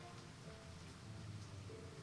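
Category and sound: nature, rain falling outside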